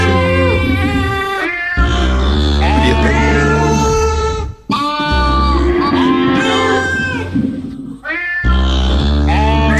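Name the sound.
cats meowing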